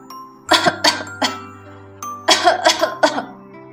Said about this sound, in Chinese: 可象老爹却靠在树干上，咳嗽的越来越厉害了。